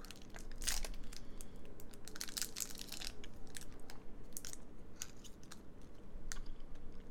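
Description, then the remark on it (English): Crinkly wrapper rustling and soft tearing of a Hi-Chew Pineapple Edition chewy fruit candy, followed by moist, irregular chewing sounds, with no talking. “Immensely fruity, intensely chewy candy.”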